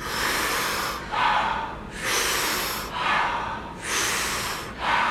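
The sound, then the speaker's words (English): Deep, rhythmic breathing exercise through a rounded mouth, done together as a group: about five full breath cycles, each big inhale expanding chest and belly followed by a soft, airy exhale, steady, with no talking. “So it's a big breath, soft exhale.”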